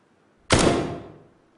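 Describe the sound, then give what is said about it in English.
A single sharp gunshot cracks out, with reverb added to make it sound as if recorded inside a bathroom: a short, bright reverberant tail rings briefly, then fades within about a second. “By adding reverb, we can make it sound like it was recorded inside a bathroom”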